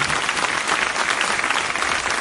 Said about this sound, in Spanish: Así que ese aplauso para todos esos niños tiene que ser así de grande.